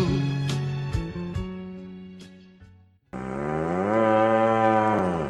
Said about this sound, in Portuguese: Te afasta pra lá, boi vai nojento. Ei, boi!